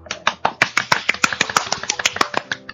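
A quick burst of hand clapping, around twenty sharp, crisp claps in under three seconds, with a slightly uneven rhythm and fairly steady loudness. No one speaks.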